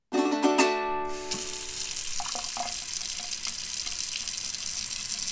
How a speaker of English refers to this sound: For most of us, when we turn on the tap, water flows like magic but have you ever wondered what it truly comes from? It is sourced from the aquifer, a river, a lake.